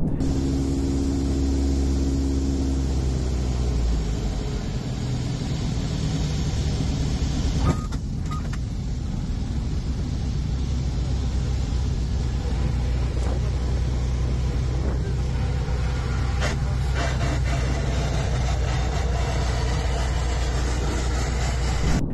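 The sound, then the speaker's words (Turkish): A loud, continuous low rumble and grinding as an airplane scrapes along the runway just after landing, its right landing gear not locked in place, the plane slowly sliding to the left, with a few sharper scraping bursts partway through and no talking. “Ancak piste konduktan sonra birkaç saniye sonra inişten hemen sonra bir sürtünme sesi duyuyorsunuz ve uçağın da yavaş yavaş sola doğru kaydığını görüyorsunuz bu videoda.”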